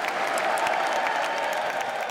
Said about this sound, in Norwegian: det vanligvis så splitta politiske USA reiste seg og klappa i solidaritet med Ukraina.